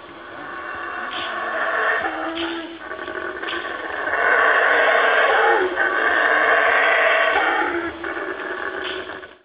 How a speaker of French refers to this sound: C'est euh, un singe, hein, vous aurez deviné. Et, c'est pas, pas, pour rien qu'on l'appelle le singe hurleur. il nous a un cri absolument effrayant, si je peux me permettre. On en écoute un extrait.